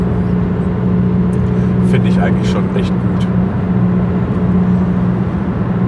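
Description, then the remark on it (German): A steady low engine drone and road rumble fill the inside of a car driving home in the evening on an otherwise empty road, a truck far ahead, with a person speaking briefly over the constant hum. “Ja, das Schöne daran, wenn man jetzt hier abends äh, nach Hause fährt, da ganz weit vor mir ist irgendwo ein LKW, ansonsten hatte ich jetzt die ganze Zeit freie Straße.”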